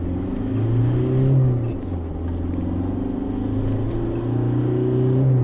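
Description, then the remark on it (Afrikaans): The 2.5 turbo diesel engine of an X-Rider bakkie (pickup) revs up and settles back, its low rumbling drone rising and falling, coarse and noisy at idle and low speed, with no voices present. “Die X-Rider 2.5 turbo diesel is grower en neerlawaaierig as sy teenstanders teen luier en laaspoed.”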